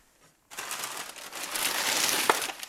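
Continuous crackling and rustling of a piece of newspaper being torn and crumpled to make paper pots for seeds, starting abruptly after a brief silence and carrying on steadily with a sharp crinkle near the end.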